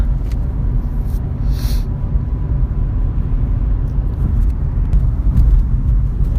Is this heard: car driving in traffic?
yes